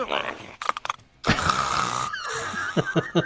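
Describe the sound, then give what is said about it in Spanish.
A person imitates loud snoring with their voice, a rasping, rattling inhale followed by a long noisy breath, fairly loud, with short vocal bursts before and after. “Eh, yo, yo, sigo roncando y, simplemente agarro la sábana y...”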